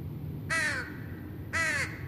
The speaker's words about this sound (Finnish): Yhtäkkiä huomaan silmänurkastani, miten jokin liikkuu paneelien päällä. Käännyn. Lintu. Iso lintu.